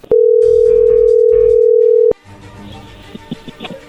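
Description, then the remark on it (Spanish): A telephone ringing tone sounds as one loud, steady, mid-pitched tone lasting about two seconds, then cuts off into faint line noise with a few soft clicks. “A ver, márcale una vez más.”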